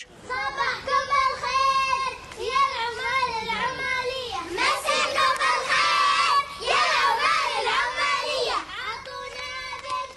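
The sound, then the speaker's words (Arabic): A group of children chant a rhythmic, sing-song rhyme together, their high voices loud, with short pauses between phrases as the call-and-response style verses repeat, for the street game 'Sabbahkum bil-khair ya al-ummal al-ummaliya', played standing in two rows facing each other; the rhyme is of Palestinian origin. “نشوف هذا الشيء ينعكس في ألعاب زي لعبة اسمها صبحكم بالخير يا العمال العمالية واللي يوقف فيها الأطفال صفين قدام بعض ويرددون هزيج”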